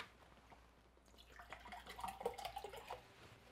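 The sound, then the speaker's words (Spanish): Mineral water pours steadily into a glass for about two seconds after a quiet start, the splashing trickle moderately loud, its pitch rising slightly as the glass fills. “Bueno, entonces, mira, acá tenemos agua mineral que vamos a poner en uno de los vasos.”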